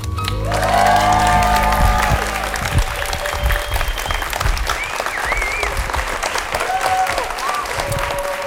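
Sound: audience applauding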